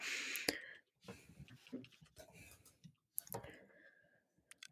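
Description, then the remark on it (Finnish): Sharp tapping clicks, a few scattered and irregular over several seconds, fairly crisp, with soft breathy, murmuring sounds filling the gaps between them. “kuuluu ensinnäkin kauheata yskimistä äsken ja sitten kuuluu tota näpytystä.”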